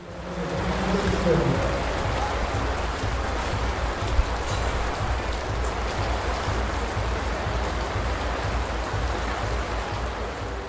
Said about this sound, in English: Well, that was the rain. That was me sheltering at the finish um, as the rain fell down. And it was cold, it was wet, it was miserable.